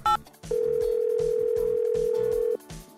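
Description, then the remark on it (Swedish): A telephone ringback tone from an outgoing call: one steady, loud tone lasting about two seconds, preceded by a short beep, with rhythmic background music underneath. “men då tar vi och ringer Lennart här”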